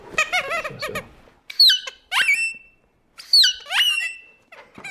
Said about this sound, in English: to using toys with squeak boxes to create otherworldly alien noises. That's pretty good sound.